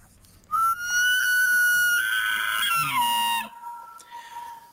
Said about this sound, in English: Okay, so that's an elk. I, I, did not know that's what they sounded like. There's probably a lot I don't know about elk.